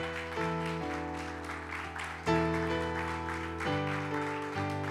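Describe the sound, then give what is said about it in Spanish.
A church audience claps steadily as a crowd, giving applause to God, while sustained keyboard chords play underneath, shifting every second or so. The clapping blends into a continuous, fairly loud wash over the held music. “Dale un aplauso a Dios.”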